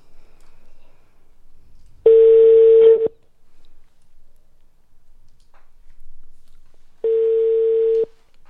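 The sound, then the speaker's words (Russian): A telephone line tone as the Radio M studio places a call to a guest: two steady, one-second electronic beeps about four seconds apart, clear and fairly loud over quiet background hiss, with no talking. “Сейчас Богослову будем звонить.”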